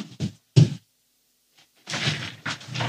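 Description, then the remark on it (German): Someone settles onto a kneeling stool: two short, dull thumps, a pause, then a longer stretch of shuffling and creaking as the seat takes the weight. No one speaks. “Ich setze mich jetzt auf meinen lustigen Kniehocker.”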